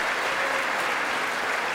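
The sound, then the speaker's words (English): Sustained applause in the chamber from a large group, with the Republicans joining in after a while during a political speech, a dense, steady wash of clapping at an even loudness throughout, with no voices standing out. “It took a little while for the Republicans to start clapping.”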